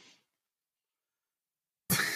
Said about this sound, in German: Wo am Ende hustet. Ja, genau. Der, wo er am Ende hustet.